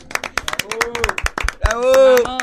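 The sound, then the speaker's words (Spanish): Loud applause for the neuroscientist Fabricio Ballarini as he is introduced for an interview: a burst of sharp, irregular hand claps with cheering voices rising over it, a sustained whoop standing out toward the end. “Fuerte aplauso para Fabri.”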